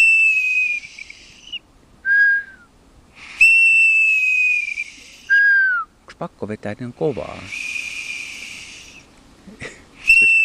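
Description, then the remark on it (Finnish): A metal bird whistle imitates a golden plover's plaintive call: loud piping notes, long steady tones alternating with short falling ones, repeated a few times, with a person talking briefly in between. “Mikä toi on toi? Ui hitto, kapustarinta.”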